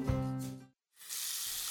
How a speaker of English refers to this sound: Hey, is that a faucet running? Nope that's not a faucet. That's a river rushing through the forest.